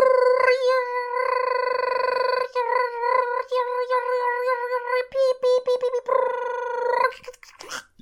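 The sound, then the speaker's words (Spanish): A voice imitates an old computer's loading noise, as when games were loaded from floppy disks, with a loud, sustained, buzzy electronic tone that warbles and shifts pitch, breaks into choppy bursts, then trails off with a brief breathy rush. “Sí, ese era el ruido de, la computadora, así es.”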